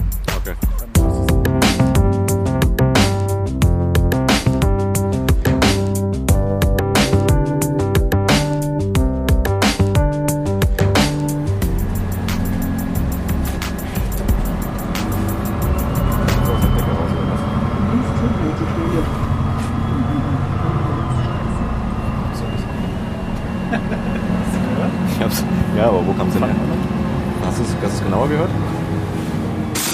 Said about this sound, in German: schöne Aktion, ehrlich gesagt, immer wieder mit dem Bus zu fahren, um den Sound zu bekommen.